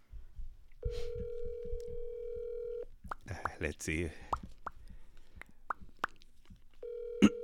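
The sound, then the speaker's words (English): A phone's ringing tone sounds as a steady, buzzy two-second burst, followed by a gap with people talking, murmuring and small clicks, then the tone starts again. “give her a call and she can explain the story.”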